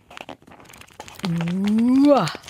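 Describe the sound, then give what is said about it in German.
The 1240 pages of a very thick book from Norway, Max, Mischa und die TED-Offensive by Johann Harstad, riffle quickly, a dry crinkly rustle lasting about a second, then a voice holds a long loud note that slowly rises and drops away. “so klingen 1240 Seiten.”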